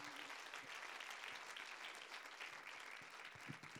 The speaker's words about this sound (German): danke für dieses fantastische Zeugnis. Gebt denen doch nochmal einen Applaus. Das ist richtig gut.